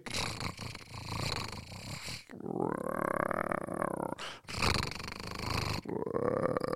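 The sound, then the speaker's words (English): A voice imitates a growling stomach with drawn-out rumbling, gurgling groans broken by breathy, noisy bursts, fairly loud, over several seconds. “And I realized my stomach was growling and I needed a cheeseburger.”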